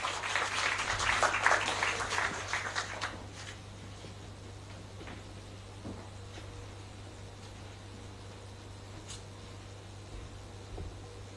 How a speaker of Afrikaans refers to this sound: Kan ons net vir haar 'n klap gee terwyl sy opkom?